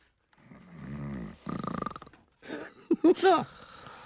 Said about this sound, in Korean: 아우 작은 아버지 코고는 소리 들으니까 마음이 짠하다. 왜? 우리 아버지도 예전엔 저 정도 소리를 내셨는데 이제 지금 작은 아버지만큼 우렁차지가 않잖아.